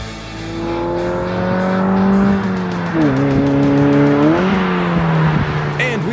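A car engine revs loudly and continuously, its pitch climbing and dipping between gear changes, with tires squealing against the pavement throughout the roaring run.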